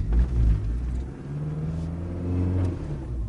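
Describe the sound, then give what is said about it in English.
A car engine rumbles low and steady as the car starts up and gently accelerates away, with a smooth rise in pitch, heard from inside the vehicle with no one speaking. “Okay, well, we'll accelerate away gently.”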